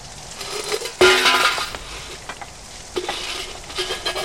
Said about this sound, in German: Das Geld ist Ihnen runtergefallen. Warten Sie. Ich helfe Ihnen.